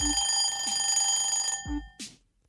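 A loud alarm clock rings in a steady, continuous buzz for about a second and a half, then stops abruptly, with a few low thumps and a brief whoosh following.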